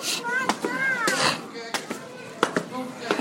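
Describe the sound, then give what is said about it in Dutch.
Several children's voices shriek and shout in bursts, high, overlapping with sharp clattering knocks; the children are frightened of the lions near a lion enclosure. “De kinderen zijn echt bang van de leeuwen, hè, zo te horen. ja, ik hoor allerlei geschreeuwen.”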